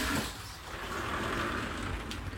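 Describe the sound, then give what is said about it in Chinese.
A toilet flushing: a steady, hissing rush of water that holds at an even level for a couple of seconds, with no voices over it. “像冲马桶的声音都录进去，真的是有点尴尬。”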